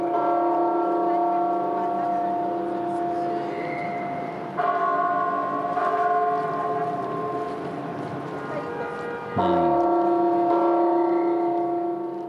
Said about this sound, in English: this is actually one of our all-time favorite sounds because the bells of the cathedral are still rung by hand, and they really echo out uh, above the events and celebrations that happen in the city center.